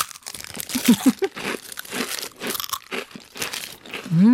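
Loud crunching and chewing of a crisp fortune cookie, with sharp cracking bites followed by repeated munching over several seconds, and a brief voiced sound near the end.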